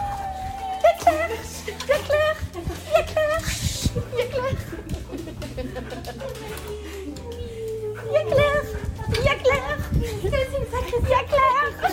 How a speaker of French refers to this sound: Faites pas attention aux petits cris de cochon d'Inde, c'est moi quand je suis excitée.